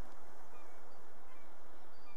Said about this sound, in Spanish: de las gaviotas, y de todo tu mar tan especial.